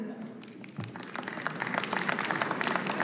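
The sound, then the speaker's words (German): Members of parliament break into clapping during a speech, starting sparse and quickly thickening into steady, moderately loud applause, a dense patter of overlapping hand claps lasting about two seconds with no one speaking. “dass sie hier klatschen, zeigt einfach, dass sie Antidemokraten sind.”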